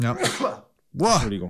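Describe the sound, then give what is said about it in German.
A short, sharp sneeze from an allergic reaction bursts out, followed after a brief pause by a person speaking. “Gesundheit im wahrsten Sinne des Wortes.”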